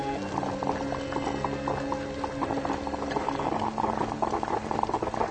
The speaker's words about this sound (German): Was, du fauchst? Bestie. Willst du mir Angst machen? Bist doch eine gute Kaffeemaschine, nicht wahr?